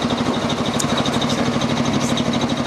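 A tractor engine runs steadily outdoors, a loud, continuous low throbbing drone with a constant idling rhythm that never lets up, with no voices over it.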